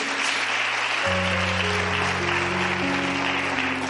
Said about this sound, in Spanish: Dale otra vez un fuerte aplauso a Jesús.